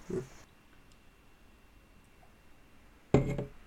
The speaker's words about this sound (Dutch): doe je mee met klinken? Klinken! En virtueel drinken.